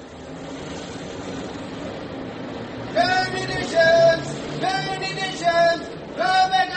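A steady low rumble of an electric underground train on London's Central London Railway (the Tuppenny Tube), joined after a few seconds by repeated high whining, squealing tones that rise and fall in short bursts, fairly loud.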